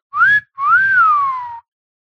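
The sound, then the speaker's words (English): A human wolf whistle (catcall whistle): a short rising note, a brief pause, then a longer note that swoops up and glides back down. It is loud and clear, with no one talking. “and that's a cat call whistle.”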